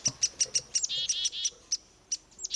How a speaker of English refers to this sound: The watchdog chickadees alert the close focused woodpecker when there's danger.